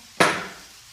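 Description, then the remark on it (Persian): One sharp, loud knock on a wooden door, with a short ringing decay before quiet returns, while it is raining outside. No voices. “یک ضربه این آقا جونه بعد از سه سال هیچی عوض نشده حتی صدای در”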